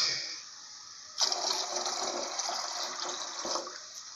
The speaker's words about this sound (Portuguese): E a água, ela é tratada ou não? O barulho, ó, o barulho, o barulho da água.